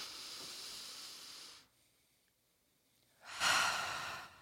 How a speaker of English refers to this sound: second podcast in a row that we do a breathing exercise.